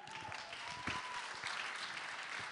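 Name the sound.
audience applause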